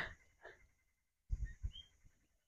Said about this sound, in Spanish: Con animales, el pájaro bobo ahí sonando.